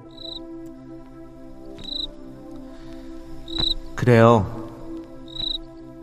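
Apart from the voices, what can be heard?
cricket chirping at night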